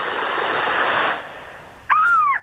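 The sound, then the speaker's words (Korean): A voice imitates wind and waves with a stretch of breathy, rushing noise, then imitates a seagull with a single loud, wailing cry near the end. “바람 소리부터 시작해가지고 파도 소리부터 해가지고 이 동물 소리 갈매기 갈매기 갈매기 갈매기야”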